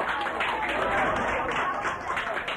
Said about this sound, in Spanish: Miren qué hermoso camioncito con la imagen de la Virgen. Un aplauso para los chicos que acompañan a la imagen.